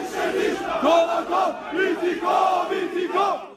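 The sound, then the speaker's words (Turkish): A large crowd chants revenge slogans in unison at the funeral of Sinan Ateş, loud, with rhythmic shouted phrases rising and falling in steady bursts over a few seconds. “İntikam sloganları bu sefer Sinan Ateş'in cenazesinde duyuluyor.”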